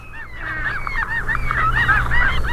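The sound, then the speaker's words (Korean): A flock of seagulls calls in flight, many harsh cries overlapping continuously and fairly loud, over a low rumbling background with no voices. “아, 이게 갈매기 소리래요. 갈매기가 때를 지어서 어디론가 지금 날아가고 있습니다.”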